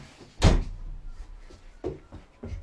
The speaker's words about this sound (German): Musste gerade eben die Tür zu machen. Also sorry.